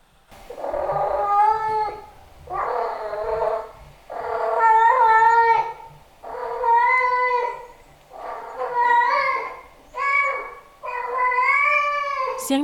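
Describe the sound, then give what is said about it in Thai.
A cat yowls a mating call to the opposite sex in long, drawn-out wails that sound eerily like a crying child, six or seven loud cries in a row with short pauses between them. “ใครได้ยินไกลๆ หรือว่าไม่ได้ตั้งใจฟัง อาจจะคิดว่าเป็นเสียงเด็กร้องก็ได้ค่ะ ในส่วนของแมวถ้าทำเสียงแบบนี้ออกมา นั่นหมายความว่า เขาไม่ใช่เด็กแล้วนะคะนี่คือการส่งเสียงหาเพศตรงข้ามค่ะ”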